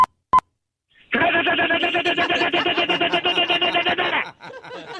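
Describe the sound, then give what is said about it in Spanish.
A voice imitates machine gun fire on request, with a rapid, sustained burst of harsh, rattling pulses for about three seconds, preceded by two short beeps and trailing into softer broken sounds. “Muy bien, ahora necesito escuchar una ametralladora.”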